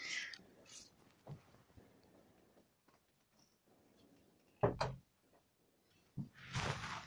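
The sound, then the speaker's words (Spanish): A dog barks in a few harsh, sharp bursts: a faint one early, then louder barks after a pause and a closing flurry, with low background noise between them and no talking. “Y ah, perdonen el ladrido del garuño, pero no quería dejar de grabar.”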